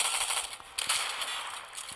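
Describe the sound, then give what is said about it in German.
Video game gunfire crackles through a dense, hissy backdrop, with a few sharp shots standing out briefly amid steady rapid fire at a moderate level. No one speaks. “Fuck, also Schuss ging in die Aura.”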